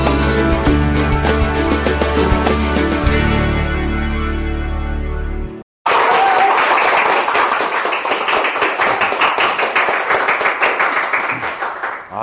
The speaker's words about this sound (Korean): 저는 박수를 아무리 받아도 이렇게 박수 받을 때마다 부끄러워요.